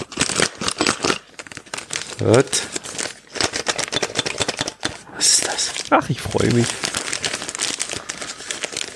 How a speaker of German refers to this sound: Und dann habe ich hier ein Päckchen. Könnt ihr es rascheln hören?